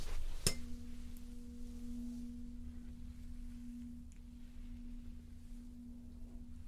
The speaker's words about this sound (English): Now, I have a tuning fork with me, and sing back to me what note you can hear.